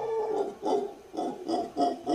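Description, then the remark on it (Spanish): A howler monkey howls in a rhythmic series of about six short, low hooting calls with a throaty, breathy tone, fairly loud, with no talking. “pongo otro para ver, porque este, este mono aullador aúlla poquito.”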